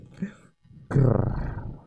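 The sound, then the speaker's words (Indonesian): A wild animal lets out a loud, deep roar lasting about a second, preceded by a short, quieter low growl and a brief pause. “Raungan hewan buas hingga suara tangis yang terdengar pilu.”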